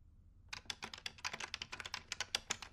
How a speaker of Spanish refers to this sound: Escribo con estos dedos sobre este teclado